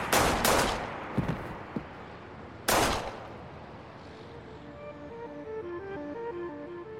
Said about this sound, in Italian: Torna giù va a prendere la sua panda, entra, mette un piede, non il secondo perché arriva un killer, arriva vicino al professore a circa un metro di distanza e gli spara tre colpi.